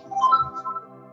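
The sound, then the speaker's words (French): An alarm rings with a steady, buzzing electronic tone, rich in harmonics and slightly wavering, sounding continuously at moderate loudness with no talking over it. “Ouais, c'est une alarme, mais ça va s'éteindre normalement.”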